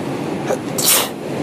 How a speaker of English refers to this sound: Bless you.